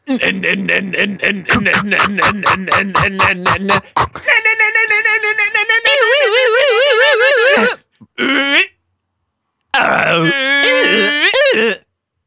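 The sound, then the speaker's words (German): A voice imitates an MRI scanner, first with loud, rapid rhythmic buzzing pulses, then with warbling, droning tones broken by short pauses. “Ich weiß nicht, wie äh, der MRT klingt, ehrlich gesagt.”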